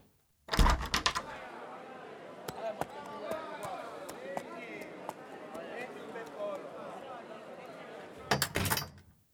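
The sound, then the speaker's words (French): A shop door rattles open with a loud burst of noise as someone looks out into the street, followed by background bustle with muffled voices and sharp intermittent clicks, then another loud rattling burst as the door moves again. “Il ouvrit la porte de la boutique pour jeter un coup d'œil dans la rue.”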